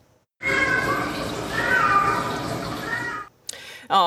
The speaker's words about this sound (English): students on campus at UBC Okanagan reported hearing that meowing coming from inside a storm drain.